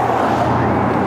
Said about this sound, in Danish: Høj, det var også en sej bil, da. Det kunne alligevel også fange opmærksomheden, sådan fra smarte biler der. Ja, det er både, både børn og voksne. Ja. Det var gamle biler.